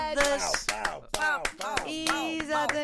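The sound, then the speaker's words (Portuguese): A short round of applause for a listener: scattered, irregular hand claps mixed with voiced whoops and cheering that rise and fall in pitch, fairly loud for about three seconds. “Para o menino fetiche, uma salva de palmas.”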